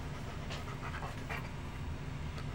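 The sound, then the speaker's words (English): A female dog pants, quick rhythmic breaths repeating steadily over a low background rumble, with no one talking. “And my dog has decided to come pay me a visit.”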